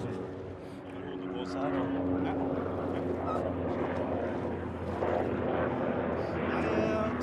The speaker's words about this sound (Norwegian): Og for en kontrast vi har her nå også, med redningshelikopter eller et supply-helikopter eller hva det nå er.